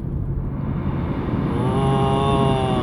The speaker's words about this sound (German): Und das Rauschen, was ihr im Hintergrund hört, das ist nicht das Meeresrauschen, sondern das ist das Rauschen meiner Heizung im Auto. Ich gebe euch noch mal ein bisschen Kostprobe.